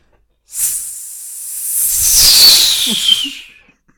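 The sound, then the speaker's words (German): A voice imitates a whistle: a breathy, hissing tone that slides gradually downward in pitch for about three seconds, fairly loud, with no talking. “Mach den Pfiff nochmal.”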